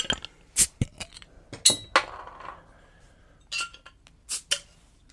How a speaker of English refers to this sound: And on that note, we're going to crack a beer.